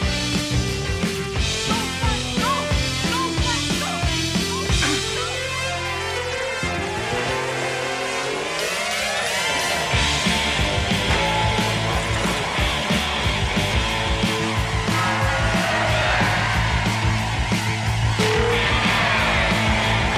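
Loud, dense music from the score of the science fiction cult classic film Flash Gordon plays continuously as a suite, with layered rock and synth textures and a dramatic swooping, rising effect midway through.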